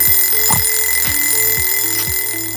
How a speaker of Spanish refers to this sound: ¿Eres de esos que pone en modo repetición el despertador cinco veces antes de levantarse?